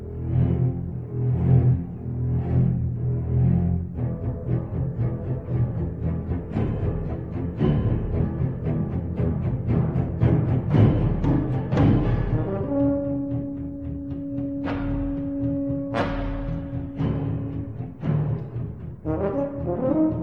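Classic shark film orchestral theme: heavy low strings pulse in a driving rhythm and build steadily, then long, loud brass notes swell in over the churning orchestra. No one speaks.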